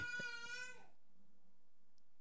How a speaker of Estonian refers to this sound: aa, keegi väike Magic Studio tegi häält Äh, jah, see mu poeg sööb, äh, siis ta karjub vahepeal